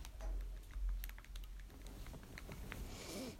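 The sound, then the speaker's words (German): Quick, irregular plastic clicks of Nintendo Switch controller buttons being pressed while playing Minecraft, fairly soft, over a low background rumble with no talking. “Also wundert euch nicht, wenn das manchmal so klickt.”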